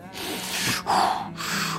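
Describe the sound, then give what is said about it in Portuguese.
A voice imitates the heavy breathing a singer began to hear in a hotel while writing a song: three loud, airy breaths in steady succession, with no words spoken. “E o … falou que, que ouvia, começou a ouvir uma respiração”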